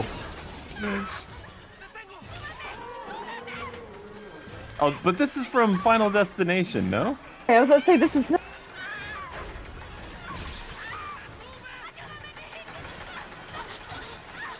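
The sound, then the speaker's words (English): Explosions from the film Final Destination, in a mall scene where people run down an escalator, crash and shatter in a loud, jumbled burst lasting a few seconds mid-clip, with people talking casually over the quieter stretches before and after. “Those are amazing explosions.”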